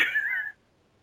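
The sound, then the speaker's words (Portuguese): A single short cat meow, clear, lasting about half a second with a slightly wavering pitch, followed by quiet. No one speaks. “Meu gato fez um ovo.”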